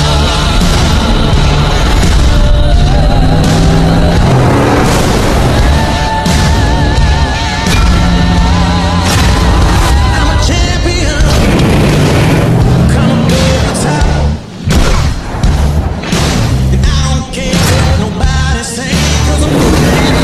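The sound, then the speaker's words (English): A loud, dense soundtrack of a Dodge Ram pickup truck commercial where a song plays over truck noises, with deep rumbling and booming hits punching through the music nearly the whole time. “There's a lot of Dodge Ram truck sounds, but you get the idea of the song.”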